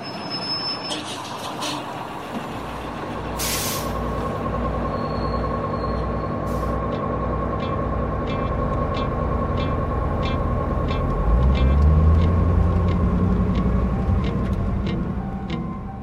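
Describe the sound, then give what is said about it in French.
A city bus that passes through Clichy rumbles steadily, its engine droning and swelling near the end, with short bursts of air-brake hiss early on and a steady ticking running throughout. “C'est le plus connu des bus qui passe à Clichy.”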